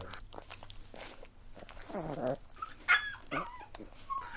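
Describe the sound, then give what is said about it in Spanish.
A small brown terrier puppy with long ears yips and whimpers in a string of short, high-pitched cries and little barks, fairly loud, with no one talking. “Una vez con mis propios ahorros me compré un cachorro de terrier, un perro hermoso, juguetón, chiquitito, marrón con las orejas largas.”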